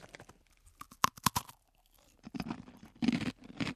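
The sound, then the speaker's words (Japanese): A few sharp, crisp crunches as a jet-black 'coal arare' rice cracker, shaped to look like coal, is bitten, followed by a stretch of softer, rhythmic munching and grinding as it is chewed. No one speaks. “石炭あられこれあの本当に石炭みたいな感じです真っ黒なんですがこれでもあられということで香りは確かにあられの香りですでも真っ黒ですちょっといただいていいですか”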